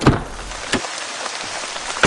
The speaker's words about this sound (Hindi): अरे ये क्या आप तो भीग रही हैं छतरी कहाँ है पता नहीं बारिश का मौसम नहीं है ना